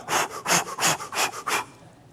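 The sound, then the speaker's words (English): A person demonstrates breathing out, blowing out five sharp, forceful breaths in quick succession in a steady huffing rhythm, with no talking, then it falls quiet. “And those who are works oriented, who are full of guilt, they're always breathing out trying to please God.”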